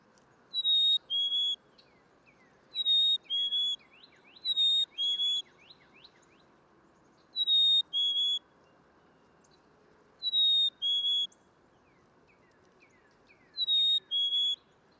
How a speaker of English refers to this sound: Yeah, that is the the wonderful spring song of the black cap chickadee. And ah. and, what, and what ah. you're hearing there is is sort of the classic Phoebe, Phoebe.